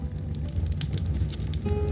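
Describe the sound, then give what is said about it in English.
A fireplace crackles steadily, with scattered sharp pops and snaps over a soft low rumble, moderately quiet. A faint tone drifts in near the end. “Set the sleep inducing music and this beautiful fireplace.”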